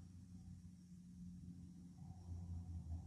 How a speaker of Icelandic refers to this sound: Og bara hljóðið í flugvelinni. Hvert verða og hvert kemur það? Hvaðan kemur það, segir ég.